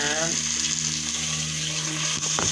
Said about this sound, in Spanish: Una vez más estamos aquí en mi cocina. Espero que se escuche un poco mejor que la vez anterior. Si solamente escuchan el sonido que les da el platillo que estoy haciendo, pues es porque así tiene que ser.